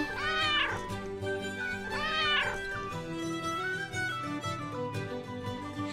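A cat meows twice, loud and close, each call a drawn-out rising-and-falling wail about a second apart, followed by a softer lingering tone with no one speaking.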